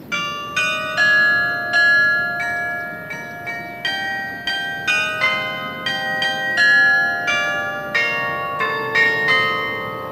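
Town hall bells ring out a steady tune, one clear strike after another at varying pitches, their tones overlapping and lingering, fairly loud with no voices present.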